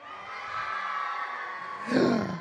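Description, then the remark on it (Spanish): A group of children scream together at once on a storyteller's cue, a sustained high-pitched chorus that swells louder near the end, energetic, with no other talking. “percibió el poder del pumpedito pedo y gritó terriblemente, ayúdenme a gritar”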